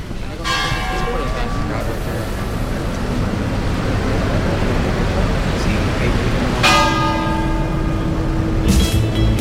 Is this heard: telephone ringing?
no